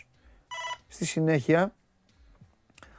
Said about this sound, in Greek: Αυτά που ακούτε είναι το, το τηλέφωνο. Να το βάλω χαμηλά.